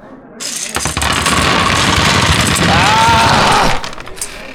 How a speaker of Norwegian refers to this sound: Dette er sneak attack-terningene mine. 300 eh, D6.